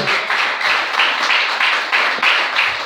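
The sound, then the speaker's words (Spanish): An audience breaks into sustained applause for the Lord during a sermon, a dense steady wash of many hands clapping with faint rhythmic surges, loud throughout and with no voices standing out. “Denle el aplauso al Señor esta noche.”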